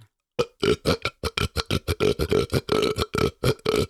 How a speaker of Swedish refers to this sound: det här var i alla fall väldigt populärt på min tid, ja. när man kunde framkalla rapen.